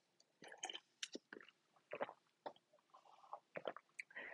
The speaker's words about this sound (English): Uh, speaking of basketball, let me take a sip of water here.